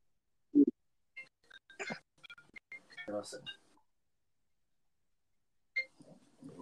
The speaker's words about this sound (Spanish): ¿No tienes nada pues, comentar al respecto? ¿De qué cosa? ¿De tu teléfono sonando?